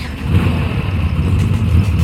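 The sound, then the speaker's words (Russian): Loud, steady roar of racing car engines revving, a dense low rumble with a high whine running through it for the whole two seconds, with no voices. “Ха, какие классные машины, видите? Итак, на старт! Внимание! Марш!”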